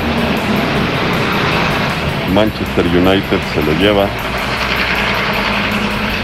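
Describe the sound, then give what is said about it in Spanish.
Constant road traffic noise, a dense, steady rumble and hiss from passing vehicles that fills the whole recording, with a man briefly speaking over it midway. “Una disculpa que tengo un poquito de tráfico por aquí.”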